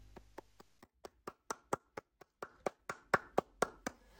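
A single person claps their hands in a steady rhythm, about seventeen sharp claps that grow a bit louder toward the end, with no talking.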